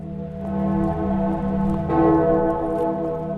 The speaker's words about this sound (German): In immer mehr Orten läuten abends um halb acht die Glocken dann stellen Menschen eine Kerze in ein Fenster ihrer Wohnung.